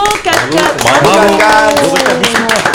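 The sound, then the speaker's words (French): Steady applause from a group fills the background while voices call out loudly over it, the clapping continuing without a break for a few seconds, applauding a woman who has gone seven days without smoking. “Comment fait-elle pour tenir On peut l'applaudir. Bravo, bravo,”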